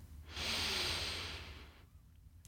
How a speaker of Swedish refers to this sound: Tar ett djupt andetag in.